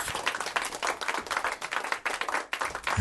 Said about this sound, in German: Es hat jetzt sogar noch Lacher eingespielt. Ja, Lacher und und Applaus. Sehr leise Lacher, aber. Ja, ja. Friends-Lacher halt.